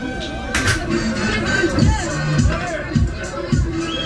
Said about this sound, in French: Je travaille comme serveuse dans un bar. Entre la musique, le bruit du lave-verre, le brouhaha des discussions qui s'entremêlent, en termes d'échelle des bruits de ma vie, là c'est le summum.